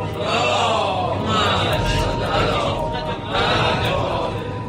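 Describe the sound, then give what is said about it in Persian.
A crowd of men loudly chants salawat together, their overlapping voices forming a dense, sustained wall of sound that rises and falls in a few rhythmic phrases. “آقایون به سلامتی خودتون و به امید اینکه انشالله سالم همه بریم برگردیم صلوات بلند”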